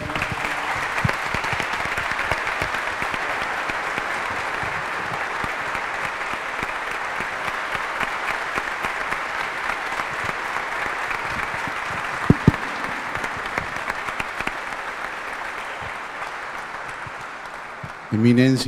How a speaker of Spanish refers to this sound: Así que muchas gracias, le damos un aplauso al arzobispo.